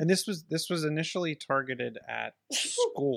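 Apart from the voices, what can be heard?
sneeze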